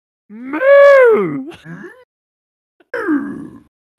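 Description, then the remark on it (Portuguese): A cow moos loudly in a long rising-and-falling call, followed after a short pause by a second, shorter moo that trails off, used as a transition sound effect. No one speaks. “E aí eu expliquei para ela que a gente usa uma transição de vaca pra entrar os”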